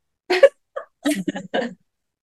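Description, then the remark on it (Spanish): A few sharp, explosive sneezes, spaced over about a second and a half, with a brief breathy intake between bursts and no talking. “Salud.”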